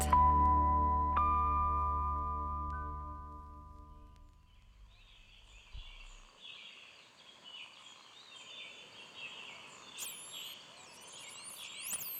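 A sustained droning tone fades out, giving way to the song of male Kourou birds over a steady rushing wash of waves breaking regularly on the shore of a desert island at dusk, with sharper chirps near the end.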